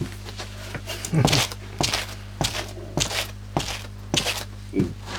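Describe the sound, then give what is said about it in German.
Foley footsteps crunch and scrape steadily over a street surface strewn with sand to make it sound dirtier, about six evenly paced steps, with a low hum underneath and no voices. “Und die Straße ist dreckiger. Dann nehme ich noch ein bisschen mehr. Also mehr Sand.”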